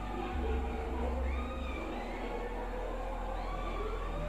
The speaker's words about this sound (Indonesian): Jadi kayak ada suara anjing ngelong-long gitu. Long, long gitu.